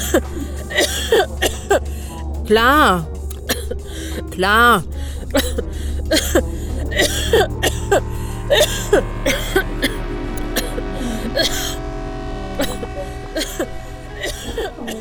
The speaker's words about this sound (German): Es war ein Stammeln, ein Winseln, das von Husten unterbrochen wurde.